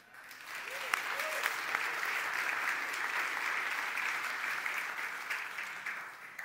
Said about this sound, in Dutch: Maar ik wil echt even voor iedereen die geslaagd is een hartelijk applaus.